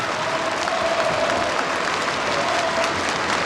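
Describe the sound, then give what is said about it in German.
A gathered crowd of over 1000 people rises and applauds steadily, a dense, continuous wash of clapping that stays loud and even throughout, with no voices standing out. “Es sind über 1000 Menschen und sie klatschen Beifall.”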